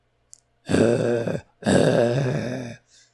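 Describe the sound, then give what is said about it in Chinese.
Two long, low, rumbling threatening growls from vicious dogs, each as big as a calf and straining at a leather leash, in a house; each growl lasts about a second with a short pause between them, loud and rough-edged, with no talking. “它们嘴巴上啊，发出威胁的低吼声。声音就像闷雷一样，在这座房里回荡。”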